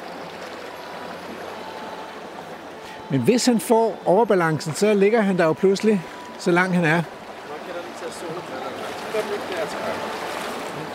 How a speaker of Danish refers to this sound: Den går ned igennem vegetationen her. Der er heldigvis ikke eller... og, men der ligger lidt store sten nede i vandløbet.